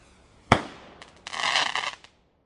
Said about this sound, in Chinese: 接下来你准备好了吗？小宇宙团队说的就是你们，准备好接受这一波发向小宇宙的庆生烟花了吗？